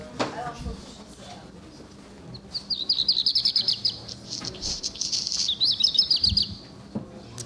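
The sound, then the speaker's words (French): A black redstart sings a few seconds of rapid, high warbling phrases broken by a dry, scratchy crackle, clear over a low background rumble. “Voilà, c'est le rouge que noir, c'est un chant qu'on va qu'on va très souvent entendre euh, en ville, parce que c'est un oiseau qui s'est très bien adapté euh, au milieu anthropisé.”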